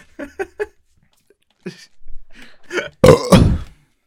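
A loud, close burp rumbles out near the end, drawn out for about half a second, after a few short, quieter vocal noises and grunts.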